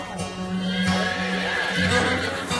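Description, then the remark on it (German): A horse whinnies, its wavering, harmonic call rising and falling over a steady background hum, with no one speaking. “Pferde.”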